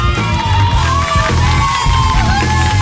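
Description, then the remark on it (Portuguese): A loud crowd cheers and whoops, with yells and shouts rising over a dense wash of noise that sounds like clapping, continuous for a few seconds, played as a sound effect on a radio programme. “Vocês, é, é, é assim, merece é, aplausos.”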